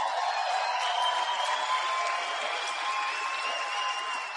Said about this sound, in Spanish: Denle un aplauso a las mujeres.